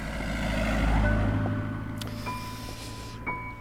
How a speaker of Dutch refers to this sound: Komt u even een autootje langs.